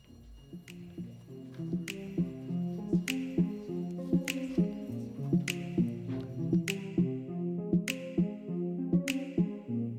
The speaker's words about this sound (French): j'ai choisi la musique … de …, euh, car j'aime bien cette musique